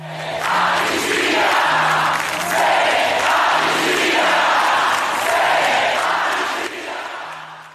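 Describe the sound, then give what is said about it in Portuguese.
A large crowd attending an inauguration chants in unison, a loud, steady rhythmic refrain repeating in regular phrases for several seconds, with dense roaring voices throughout and no single speaker standing out. “Como também expressou a multidão que acompanhou a posse.”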